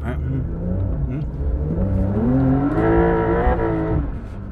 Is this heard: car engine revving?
yes